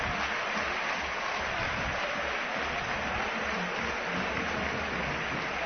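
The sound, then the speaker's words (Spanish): The stadium crowd at the Calderón gives a sustained ovation for Diego Costa as he is substituted off in a football match, a dense, steady roar of clapping and cheering that holds at an even level throughout, with no distinct voices standing out. “Ovación del Calderón para Diego Costa, saludando a todos sus compañeros con mucha tranquilidad.”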